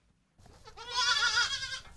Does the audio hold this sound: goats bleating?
yes